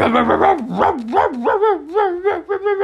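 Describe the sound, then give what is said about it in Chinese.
A pack of hunting dogs tracking a fox barks and bays in a steady, overlapping run of yelps and wavering, whining howls, loud throughout, with no talking. “你看好多狗，它它在哪里？”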